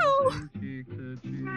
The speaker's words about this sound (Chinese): 你稍等，我把我的猫抱过来， 来来来， 斯特。我们家那个猫真的是，我一到录关键的时候就开始喵。